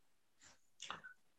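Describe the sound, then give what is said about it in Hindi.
A single sneeze: a short breathy intake, then a sharp explosive burst with a brief trailing squeak, heard alone without any talking. “बेटा यू से God bless you”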